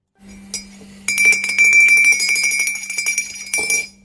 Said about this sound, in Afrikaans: Die geloofslepel word geroer hier op Coffee Date.